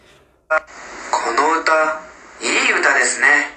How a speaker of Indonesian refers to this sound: hmm lagu ini bagus ya Hai, kalau saya dengar lagu ini saya selalu ingat masa-masa sekolah